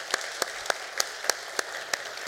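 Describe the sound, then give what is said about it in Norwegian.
Hands clap in applause for guests who have just been introduced, about eight sharp, evenly spaced claps in a steady beat over a faint background hiss, fairly loud, with no one talking. “Ja, ja, jeg gir dem en applaus.”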